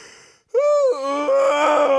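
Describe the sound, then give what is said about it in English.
A big, drawn-out human yawn: a short breathy intake, then a loud voiced groaning exhale that rises and stretches for over a second, with no talking. “That's a big yawn.”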